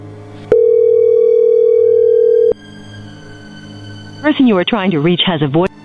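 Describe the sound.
A telephone ringing tone as a man is dialled again, sounding once as a steady, loud two-second hum, followed by a quiet pause and then a voice talking through a thin, phone-filtered line.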